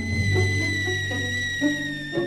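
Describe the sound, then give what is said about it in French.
A steady, high-pitched whistle from a water-clock alarm sounds continuously, holding one bright tone with faint overtones, while soft low thumps and bubbling water noises pulse underneath. The whistle is set in a tiny hole at the top of the lowest vessel and is used to wake someone. “Pour me réveiller, je vais installer un sifflet.”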